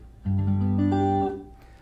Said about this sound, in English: That is a chord played without reverb on it. Okay? When, the, when this, which causes the strings to, to vibrate, is stopped, the sound stops.